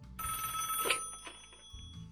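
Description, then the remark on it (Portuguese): A telephone rings for an incoming call, a bright electronic trill with steady high tones and a brief burst of louder chirping, sounding on its own without any talking. “Tá ligando aqui já.”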